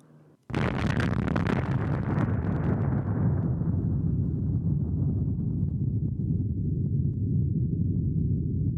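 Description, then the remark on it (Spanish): A single massive explosion of the United States atomic bomb dropped by a B-29 bomber on Nagasaki, Japan, erupts suddenly, then gives way to a deep, continuous rumbling roar that slowly loses its sharper edge but never fades out. No voices are heard. “Shimomura vio el destello de la explosión y quedó cegado por 30 segundos, lo que fue seguido por una gran ola de presión.”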